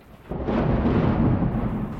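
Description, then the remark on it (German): A low, rumbling roll of thunder swells in after a quiet start and sustains as a broad, heavy rumble, fairly loud with no voices. “schrie er durch das mittlerweile laut gewordene Donnergrollen.”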